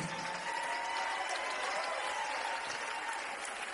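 A large audience claps steadily throughout for singers after a night of singing, a dense, continuous wash of applause with no voices standing out.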